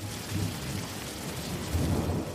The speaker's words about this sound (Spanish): Las nubes traían y dejaban caer la provechosa lluvia.